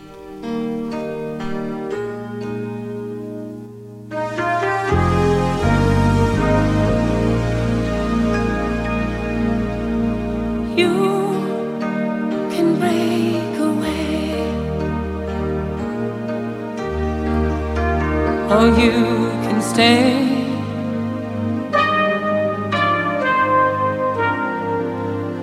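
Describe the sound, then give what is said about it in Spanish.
An upbeat pop song by a female singer, performed as a musical guest's second song, plays loudly and continuously, with a punchy bassline, bright synth chords and a lead vocal melody rising over the full band arrangement. “Continuamos ahora con una segunda canción de nuestra invitada musical”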